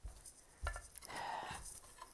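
Dishes being washed, with scattered light clinks of plates and cutlery and a soft running-water hiss in the middle, fairly quiet throughout.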